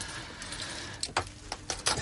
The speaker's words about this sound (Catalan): Els claus de casa, claus de però casa. mentrestant, mentrestant, Va, que soni, que soni. escoltem.